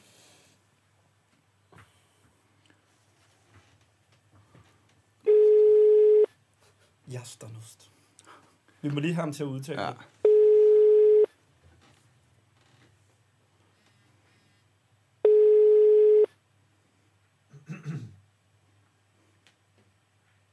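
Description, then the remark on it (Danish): A telephone ringback tone on an outgoing phone call sounds three times, each steady one-second beep about five seconds apart, loud and clear, with a few brief spoken words between the rings. “Lad os mm-hmm. ringe.”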